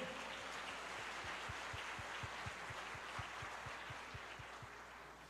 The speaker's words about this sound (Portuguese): Agora vamos aplaudir o Senhor pela vida desse homem.